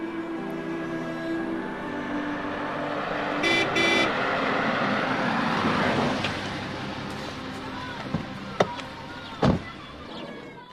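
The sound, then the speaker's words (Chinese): A car drives steadily along a road to Pishan village, its engine and tire noise forming a continuous rumble, with a brief horn-like tone partway through and a few sharp clicks and thumps near the end. “我以为他要还钱了， 就和老公开着车去了。”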